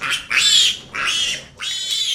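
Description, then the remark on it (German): A pig squeals loudly and shrilly in three long bursts separated by short pauses, with harsh grunting edges and no talking. “Vielleicht haben Sie es erkannt, es wird schweinisch jetzt in unserem Thema des Tages.”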